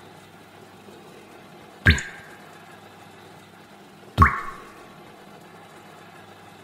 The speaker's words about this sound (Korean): 믹서가 돈다. 또, 또, 여전히 믹서는 돈다.